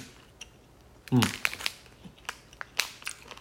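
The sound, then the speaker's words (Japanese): Crisp crunching as someone eats 'oyatsu wakame' snack stem wakame seaweed: one loud crackly bite followed by a string of irregular, sharper crunches and clicks at moderate volume. “あコリコリ食感が、うまっ音聞こえますかこれ。”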